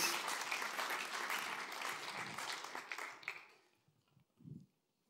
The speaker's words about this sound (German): Ein Applaus mal für unsere Maskenträger. Danke euch.